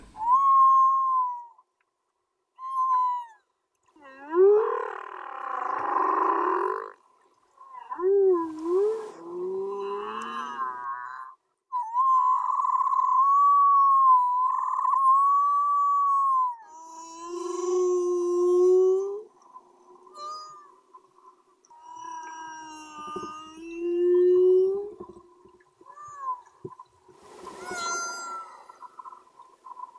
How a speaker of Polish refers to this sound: Tak brzmią humbaki słyszane pod wodą, humbaki u wybrzeży Tonga. Słyszałeś to na własne uszy. Tak, dokładnie te dźwięki zostały nagrane przez mojego kolegę